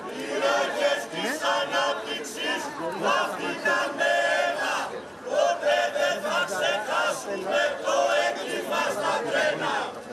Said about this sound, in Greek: Μεγάλα συλλαλητήρια σε όλη τη χώρα στο πλαίσιο τη απεργία που προκηρύχθηκε για το δυστύχημα στα Τέμπη. Χιλιάδε άνθρωποι συγκεντρώθηκαν στο κέντρο τη Αθήνα, φωνάζοντα συνθήματα έξω από τη Βουλή.